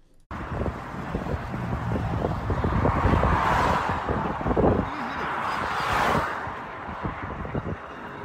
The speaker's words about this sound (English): pulled over to the side, grabbed their phone, and then recorded the car as it drove by them. And Yahoo News posted the video clip, and I want to put that up so that people can see that this actually happened driving without a left front tire.